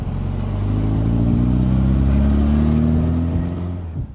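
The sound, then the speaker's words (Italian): A car engine hums steadily and climbs in pitch as the vehicle accelerates, loud throughout, with the revving easing off and fading slightly at the very end, as the car arrives on the Dalmatian coast of Croatia in torrid late-August heat. “Tra le tante macchine incolonnate ci siamo anche io e la mia ragazza e dopo alcune ore di estenuante viaggio arriviamo sulle coste della Dalmazia.”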